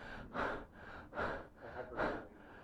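A person takes three heavy, rapid gasping breaths in a steady rhythm, each a loud, airy rush, demonstrating strained chest breathing with no talking.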